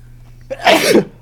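A single loud sneeze bursts out after a brief sharp intake, a broad noisy blast lasting about half a second before cutting to a low background hum.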